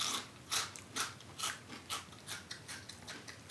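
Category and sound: food or drink, crunching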